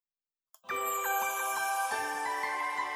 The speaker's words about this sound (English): those church bells like a Christmas song.